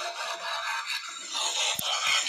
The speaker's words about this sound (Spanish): Y perro es un Optimus Prime que se transforma solo, weón. Estoy impresionado. ahora si se escucha algo. Mira, acá está. Perro se está transformando, weón.